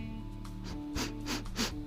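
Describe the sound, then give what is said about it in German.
Three soft, short, quiet sniffs of snuff through the nose in quick succession, taken as gently as possible, each a brief airy hiss with a faint low hum beneath; no talking. “Ich habe versucht, so vorsichtig wie es irgendwie geht, so ganz leicht so.”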